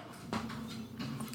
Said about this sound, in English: sorry the cat is like banging at the door now just push it open i left it cracked he just goes, Meow.